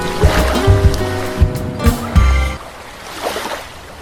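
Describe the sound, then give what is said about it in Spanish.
Sea waves wash in with a broad, hissing surge, mixed at first with low tonal humming that fades out, leaving softer rolling surf toward the end. “Estas olas del mar son indicativo de que están escuchando una nueva edición de verano del podcast Hasta el rabo todo es toro.”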